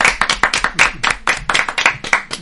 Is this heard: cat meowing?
no